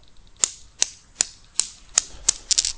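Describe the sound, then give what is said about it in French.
Steel balls of a Newton's cradle, a desk toy with five suspended steel balls, clack in a steady rhythm, about eight sharp metallic ticks roughly evenly spaced, the last few coming quicker and closer together. “un espèce de, d'objet, tu sais, que tu poses sur un bureau, où tu as cinq bouts d'acier qui sont suspendus”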